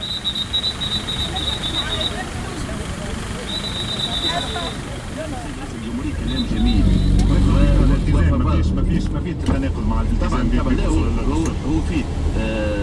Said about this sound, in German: An der Kreuzung versucht ein Verkehrspolizist, Ordnung ins Chaos zu bringen, erfolglos.